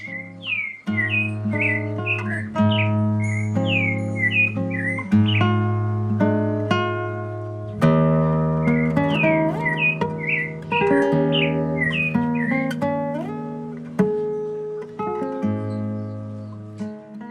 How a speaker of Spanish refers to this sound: los sonidos de las, de, las aves, el chonte, que es mi ave favorita, eh, el, canto del chonte.